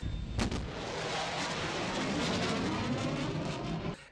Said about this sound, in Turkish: Aslında uçak tasarımının dışında sesten hızlı uçmanın verdiği bir sorun da vardı ortada. O da uçaklar ses hızını geçtikleri zaman ortaya çıkan sonic boom yani bir şekilde bir e, ses patlamasından dolayı